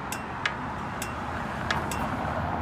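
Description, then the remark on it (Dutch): Sharp, quiet ticks from a phone app aimed at a traffic light repeat at uneven intervals, about five in under three seconds, over the steady rumble of street traffic. “Je hoort dat hij gaat tikken.”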